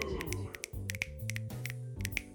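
An audience at the Care Poetry Lounge snaps their fingers for the soundboard operator in a scattered, irregular patter of sharp, crisp clicks lasting a couple of seconds, with a low steady tone murmuring underneath.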